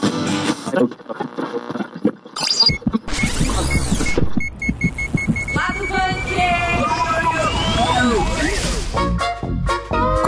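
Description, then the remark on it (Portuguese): A busy intro jingle packed with sound effects: sharp bursts, whooshing sweeps, rising electronic glides and bright tonal stabs, layered densely and loud over about ten seconds without any talking. “Vamos começar aqui, sem mais atrasos, a nossa nosso episódio de Lado Bunker com a vinheta.”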